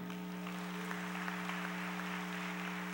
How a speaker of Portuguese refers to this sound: Quem ama a vinda de Jesus, aplauda Ele.